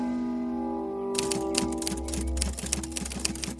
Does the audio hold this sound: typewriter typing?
yes